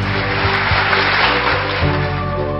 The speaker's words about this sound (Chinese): 今天我们是请到了一位来宾，就是大家熟悉的王源来到我们的现场，来，掌声欢迎我们的王源。